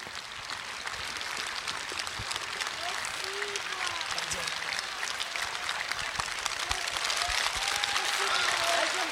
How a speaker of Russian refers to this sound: Вот, еще раз, Крокус, наградим аплодисментами.